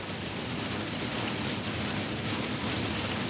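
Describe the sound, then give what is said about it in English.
Heavy rain pelts down steadily in a dense, continuous hiss with no pauses, loud, with a low rumble underneath and no voices, heard from the WRAL Storm Tracker vehicle driving south on Highway 1 towards Apex. “You could feel that moisture just increase throughout the day, and now it is pelting down hard.”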